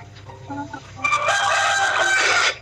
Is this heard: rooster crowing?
yes